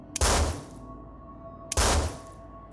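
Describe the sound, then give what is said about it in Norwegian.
Two loud, sharp gunshots as a man fires a revolver twice at a woman, spaced about a second and a half apart, each a booming crack with a brief ringing tail, with no voices. “Han mente selv at han handlet i affekt da han avfyrte to skudd mot henne.”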